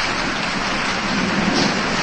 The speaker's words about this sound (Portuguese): A chuva começou a cair forte